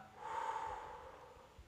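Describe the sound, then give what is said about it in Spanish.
A single deep breath taken as a relaxing breathing exercise (inhale for 4 seconds, hold 4 seconds, then exhale), an airy rush that swells quickly and then slowly fades, with no talking around it. “Eh, podemos hacer, por ejemplo, eh, hago una inhalación de 4 segundos, retengo el aire 4 segundos y luego exhalo.”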